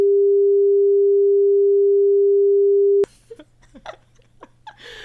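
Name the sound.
censor bleep tone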